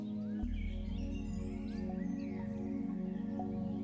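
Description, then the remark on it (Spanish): Faint, distant birds chirp and twitter intermittently over a steady, low, sustained musical drone that fills the background. No one speaks. “A lo lejos, escuchas el canto de los pájaros”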